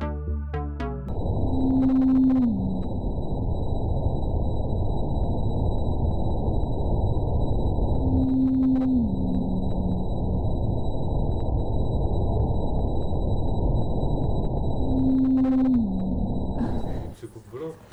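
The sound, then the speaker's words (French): Antarctic blue whale calls sped up ten times: three evenly spaced moans, each a steady hum that slides downward in pitch, the same signal repeated, over a dense, rushing hiss with a faint high whine throughout. “là, c'est vraiment la signature vocale des baleines bleues euh, antarctiques.”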